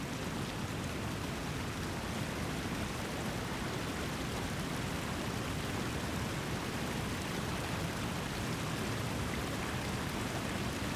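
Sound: rain falling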